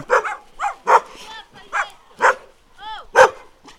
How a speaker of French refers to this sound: Alors que les chiens aboient parce que je passe près d'une maison.